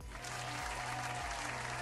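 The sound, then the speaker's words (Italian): A burst of applause sound effect, dense steady clapping from a large crowd that fills the whole moment at an even, fairly loud level, with a low droning tone underneath. “Io, io, farei, io metterei in effetto di un applauso a questo punto”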